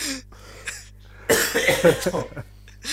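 coughing fit

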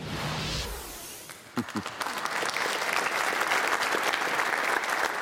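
football fans chanting

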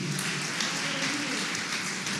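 audience applause

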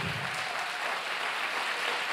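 audience applause

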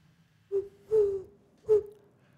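eagle-owl hooting

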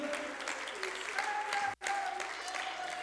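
audience clapping hands

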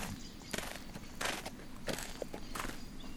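footsteps walking uphill

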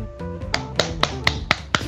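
hand clapping

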